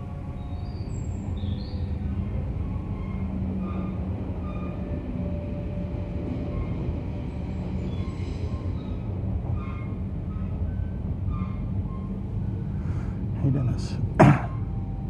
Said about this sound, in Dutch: En zoals je hoort zit ik in de trein.